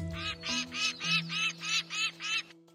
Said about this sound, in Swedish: Det mm. låter för måsigt.